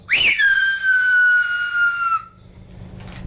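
A single loud human whistle answers in a whistled language used over long distances, a reply meaning the call was heard: it jumps sharply upward and then glides down in one long, steady falling note for about two seconds before stopping, leaving faint background noise.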